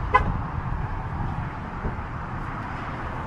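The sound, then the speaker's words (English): A single short car horn chirp as a car is locked by remote at a rest stop in New York State, then a steady low outdoor rumble of traffic continues alone. “I should probably lock the car here.”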